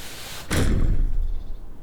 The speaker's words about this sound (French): Soudain, on tambourine à la porte de son appartement parisien.